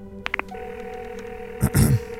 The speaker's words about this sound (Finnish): Hän kääntyi ja käveli käytäväpuhelimen luo. Sitten hän soitti huoneistoonsa.